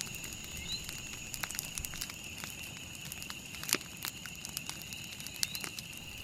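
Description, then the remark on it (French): A campfire in a forest at night crackles with scattered sharp pops and snaps, one louder crack standing out, over a steady high chirring of night insects in the background. “On est dans une forêt. Sauf que c'est la nuit. On a fait un feu de camp.”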